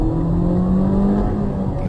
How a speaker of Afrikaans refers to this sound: 110 kW 2 liter net lewendig wanneer jy die masjien opwen. Boor hom en 0 na 100 neem net 9.5 sekondes.